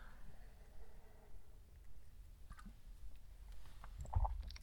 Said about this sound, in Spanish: Pausa para trago de café.